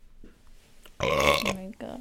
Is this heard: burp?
yes